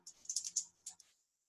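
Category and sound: household object, pen being clicked repeatedly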